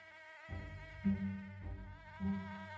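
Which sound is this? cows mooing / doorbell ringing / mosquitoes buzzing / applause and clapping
mosquitoes buzzing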